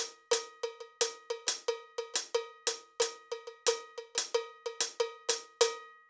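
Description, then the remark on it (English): A bright cowbell on a drum kit plays a quick, syncopated Afro-Cuban groove of sharp metallic strikes, with some hits louder than others. It is steady, with no talking. “Now the bass drum, Cuban grooves, Afro-Cuban grooves are not patterns per se.”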